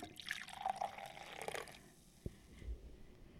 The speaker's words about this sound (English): I'm gonna pour Kenzie some kombucha.